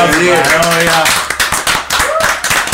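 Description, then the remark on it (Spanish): A short burst of hand clapping, a string of quick, sharp claps given as applause, with a voice sounding over the first half before the claps continue on their own. “Un aplauso,”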